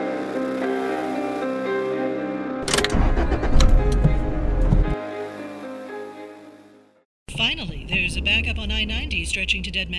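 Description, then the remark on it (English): A car engine hums steadily, surges into a loud rough rev for a couple of seconds, then fades out; after a brief silence, a person talks over a continuing vehicle drone. “please note that our story also takes place in a car and includes sounds of honking, traffic, and tires screeching.”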